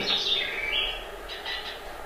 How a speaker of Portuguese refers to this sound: Que outros sons me chegam da infância? Um cacarejar sonolento de galinhas numa tarde de verão? Um canto de um cambachirra?